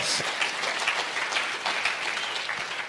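A round of applause from many hands, a dense, steady patter of clapping that holds at an even loudness for about three seconds without letting up.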